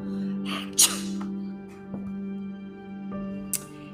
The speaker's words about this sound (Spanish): Perro solo estornudó.